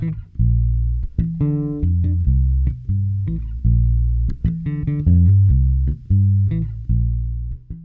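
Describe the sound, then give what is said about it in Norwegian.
A solo electric bass guitar, the bass part of a song heard isolated, plays a melodic line of plucked notes, full, with sustained low tones and occasional sliding pitches, no other instruments or voices. “Og her får vi høre bassen isolert.”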